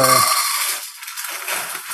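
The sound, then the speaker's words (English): Chocolate chips pour from a bag and clatter into a metal saucepan in a quick, dense rattling stream, a bright scattered patter that thins out over two seconds, with a brief voiced sound at the very start. “And the first thing I'm going to do is feel around because a couple of chocolate chips got on the stove.”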